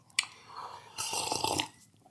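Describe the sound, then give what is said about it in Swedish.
A quiet slurping sip of coffee followed by a short burst of wet mouth and swallowing sounds, lasting about a second, with no talking. “Nu måste jag ta en klunk kaffe här och försöka andas mellan varven också.”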